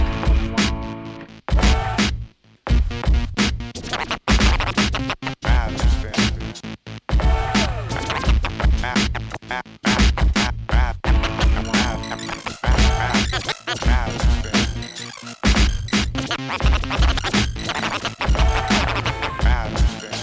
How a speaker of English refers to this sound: but now you're going to hear something that doesn't. The hip hop of the week.